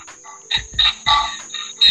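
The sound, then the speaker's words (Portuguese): Cicadas buzz in pulsing, raspy bursts that swell and fade every half second or so, over a thin steady high whine in the background, fairly loud, with no voices. “Barulho é das cigarras.”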